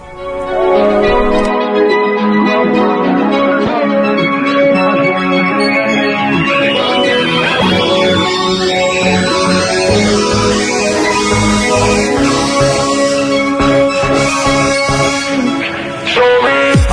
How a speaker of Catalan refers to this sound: La cançó que avui és d'un artista prou conegut a Catalunya i que sona així.